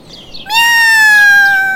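A single long, loud cat meow, holding steady and sliding slightly downward in pitch, preceded by a brief quieter trill-like sound.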